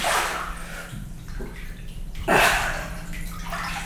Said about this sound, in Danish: går først i vandet. Hun er højgravid, så for hende er det ekstra særligt at slippe vægten af den tunge mave.